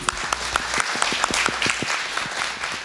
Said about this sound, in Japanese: どうぞ皆様大きな拍手をお願いいたします